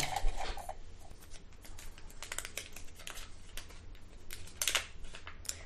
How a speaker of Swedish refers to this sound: Eh, du ska få dra en lapp i burken som du har framför dig. Alright. Du får skaka den först.